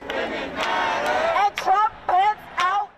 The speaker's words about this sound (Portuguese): Após o anúncio do grande júri, os manifestantes imediatamente tomaram as ruas da maior cidade de Kentucky e marcharam por horas a gritarem.